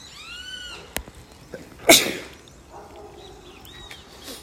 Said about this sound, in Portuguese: Uma brisa maravilhosa que me fez dar um espirro agora, porque eu não estou acostumado com essa brisa lá em Niterói